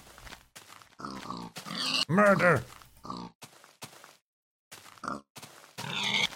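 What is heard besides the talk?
pig grunting and oinking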